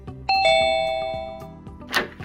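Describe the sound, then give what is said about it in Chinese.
A doorbell rings out a clear two-tone ding-dong, announcing the delivery of a dog ordered from a two-second delivery website: a bright high chime followed by a lower tone that rings and slowly fades, with a brief burst of noise near the end. No one speaks. “叮咚，你好，你小时候的狗到了。”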